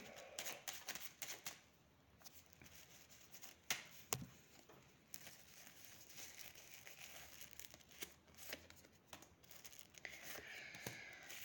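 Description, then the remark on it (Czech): Tarot cards being shuffled and laid down during a tarot reading: a soft, papery riffling and crinkling with scattered sharp little snaps and slaps, fairly quiet and continuous, with no talking. “Eh, když se dívám, jak to má s jinýma ženskýma, já hodím ještě další karty.”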